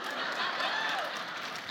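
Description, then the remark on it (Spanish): A steady wash of audience applause, many hands clapping at once into a dense, even hiss that holds level for the whole moment without a clear break. “Ahí sí aplauden, no.”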